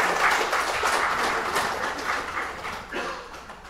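A crowd gives the Lord a hand clap after a prayer, clapping steadily for several seconds, a dense, even wash of many overlapping hand claps that holds at a fairly strong level and eases slightly toward the end.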